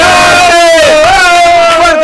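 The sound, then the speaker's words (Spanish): A loud burst of audience cheering at the Premios Carlitos award presentation on a show, dominated by a long, steady, high-pitched yell that holds its pitch for about two seconds over a noisy wash of voices. “Fuertes y aplausos”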